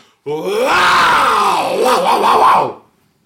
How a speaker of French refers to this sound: Poussez un long cri.